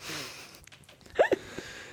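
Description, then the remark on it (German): A person fakes a sneeze: a quick two-part burst, the second sharper than the first, standing out loudly against an otherwise quiet background. “Und dann ist es zu so einem Thing geworden, dass wir immer fake niesen.”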